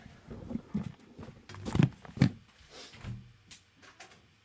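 A door is opened after a knock, with a couple of sharp clunks and rattles from the latch and handle amid soft shuffling and rustling, and no one speaking.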